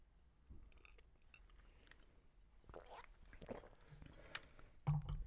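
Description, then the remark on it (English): Someone gulps down a shot of añejo tequila, with quiet wet swallowing and mouth noises, a sharp click, and a louder thump near the end. “I just guzzled. I just took a, like a gulp of that.”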